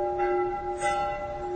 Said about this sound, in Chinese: 他还看到了教堂的尖塔和圆顶，听到了教堂洪亮的钟声。